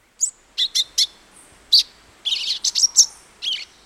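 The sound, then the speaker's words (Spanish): A songbird sings a quick series of bright, high-pitched chirps, about a dozen short notes in uneven bursts, clear over a quiet background with no voices. “Si un sensontle imita el canto de un cardenal, casi nunca engañará a otro cardenal.”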